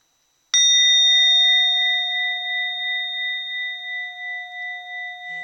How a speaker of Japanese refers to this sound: どうやりましたかと言いますとあその前にね一度普通におりんを叩いて鳴らすっていうのをやってみたいと思います音色を聞いてみてください